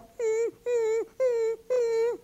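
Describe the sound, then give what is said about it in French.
A person's voice imitates a dog whimpering: four high, whiny, slightly falling cries in an even rhythm, each about a third of a second, clear with no other talk. “Ça, c'est un chien, OK?”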